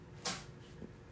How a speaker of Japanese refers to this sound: おお誰かくしゃみしたね